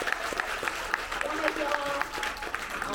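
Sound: audience applause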